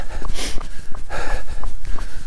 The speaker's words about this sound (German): Jetzt bin ich mal wieder auf meiner 0 auf 15 Standardrunde unterwegs. Oh, mit echt viel Wind, ich drehe hier um, das nervt.